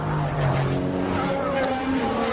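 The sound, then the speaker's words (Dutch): Formula 1 cars accelerate hard at a race restart as the safety car period ends at the end of lap 54, going into lap 55, for a 15-lap sprint. Several high-pitched engines whine upward in pitch together, loud and sustained over a dense roar of the field. “We luisteren even naar de herstart.”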